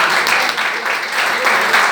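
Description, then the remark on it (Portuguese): An audience applauds in praise of the Lord at a church service, a dense, continuous wash of clapping hands that stays loud and even throughout with no talking over it. “Eu agradeço a oportunidade as palmas que adorem o Senhor.”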